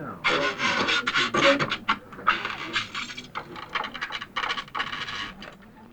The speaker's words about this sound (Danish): Alt imens det sker, så står Philip Corner og forsøger at sæve en stol over i to halvdele. Det er den lyd, man kan høre i øjeblikket.